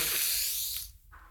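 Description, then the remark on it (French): A voice imitates a sharp inhaled breath to illustrate the French word "inspirer": a single airy, hissing gasp lasting under a second, fairly loud, then cutting off abruptly. No words are spoken. “Alors que ça coupe ma respiration et ça me fait”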